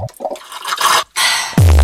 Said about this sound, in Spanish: Que es la de tomarte una gaseosa con un sorbete. Igual ahí ya suena más otra cosa.